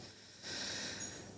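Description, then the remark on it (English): A dog's collar tags jingle softly as the dog moves around, a continuous, hissy metallic shimmer that swells a little louder partway through, with no one talking. “um sorry, that's my dog.”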